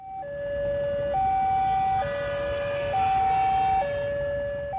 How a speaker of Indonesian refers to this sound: Sirine perlintasan kereta api meraung hanya berjarak puluhan meter dari stasiun Purwosari, Solo, Jawa Tengah. Antrian ratusan kendaraan berjejal memenuhi jalan selebar sekitar 8 meter.